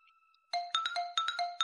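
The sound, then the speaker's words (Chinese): An alarm clock's electronic alarm tone starts after a faint steady hum, then chimes in a rapid repeating pattern of bright, layered beeps, loud and without any voices. “闹钟响了。”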